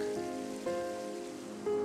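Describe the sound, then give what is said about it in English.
Water dripping from above patters and trickles steadily, cascading over rock, with two sharper drip-like surges that ring with a faint hollow tone before fading back into the continuous wash. “Drips of water fall from above and flow down in beautiful cascades flowing over rock.”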